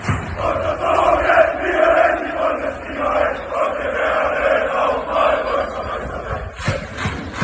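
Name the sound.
football fans chanting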